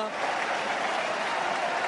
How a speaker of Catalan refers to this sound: Atenció, perquè escolteu de fons el clam i les celebracions de les colles.